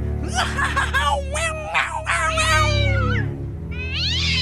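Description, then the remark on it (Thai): An angry cat yowls in a rapid string of loud, pitch-bending cries as it charges in extreme rage at a mouse in a cave, ending with one long drawn-out wail, over a steady low background hum. “ด้วยความโกรธสุดขีด เจ้าแมวจึงพุ่งเข้าใส่นางหนูที่อยู่ในถ้ำหมายจะขย่ำให้สุดชีวิตโดยหารู้ไม่ว่าหายนะกำลังจะเข้ามาใกล้ตัว”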